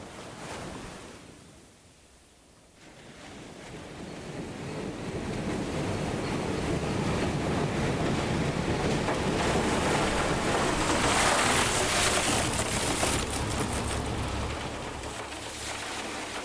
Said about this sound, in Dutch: Wat je hoort is een machine die ijs verpulvert in de haven van Cha'am. Hij wordt gevoed door blokken massief ijs van wel 30 bij 30 centimeter en 1 meter lang. Zo komt het namelijk uit de ijsfabriek.